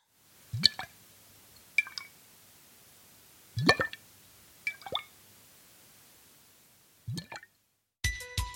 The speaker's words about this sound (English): It sounds drippy. It sounds like liquid. What kind of thickness did it sound like the liquid had? Was it thick or thin?